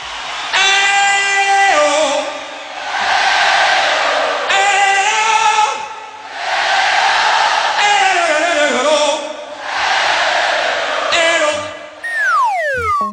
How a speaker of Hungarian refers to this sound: Főleg az a rész, amikor megénekelteti a közönséget.